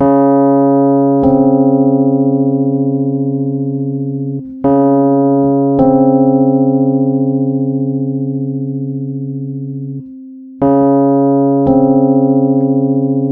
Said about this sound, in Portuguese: Essa deu pra ouvir bem o batimento, inclusive, né?